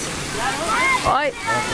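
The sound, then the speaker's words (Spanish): Steady rushing water from a wave pool at a crowded water park fills the scene like surf sloshing, with children's voices and shouts rising over the continuous wash. “Hay la piscina del cubo, hay la piscina de olas.”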